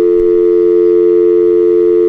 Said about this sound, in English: That's a dial tone. Oh, that's just great. Okay, sorry. well, I can't hear it because I'm I'm in the process of doing something else. so whoever they were, they hung up.